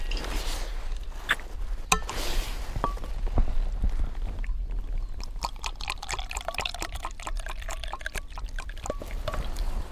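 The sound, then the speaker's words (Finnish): Coffee is poured outdoors during an overnight excursion in a steady, splashy hiss over the first few seconds, followed by scattered light clicks and drips with faint chirping tones behind them. No one speaks. “Tämä on aika tärkeä juttu. Kahvi juonti.”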